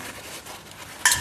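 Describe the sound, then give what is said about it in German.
A sharp metallic clack from a shaken spray paint can, its metal ball rattling inside to stir up the pigments, a single bright rattle bursting out near the end after a stretch of quiet background noise. “Das Geklapper, was ihr hört, sind die ähm, Farbflaschen die, wenn man sie schüttelt, innen drin ist so eine Metallkugel und die ähm”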